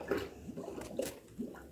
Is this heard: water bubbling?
yes